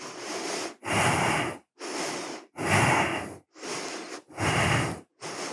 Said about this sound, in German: und dann drück das Gesäß weit nach oben und halte. Vielleicht gehen noch ein paar Atemzüge.